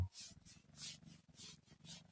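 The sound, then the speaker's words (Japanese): A cat purrs softly, a low continuous rumble that swells and fades in a steady rhythm of about two cycles per second with its breathing, with no voices. “ゴロゴロ言っておりますが。”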